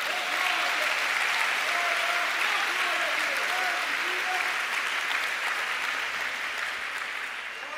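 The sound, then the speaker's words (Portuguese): An audience breaks into sustained applause, a dense, steady wash of clapping that holds loud for several seconds before easing slightly at the end, with faint voices mixed in. “Oi, irmão, se é para aplaudir, é para aplaudir, não é verdade?”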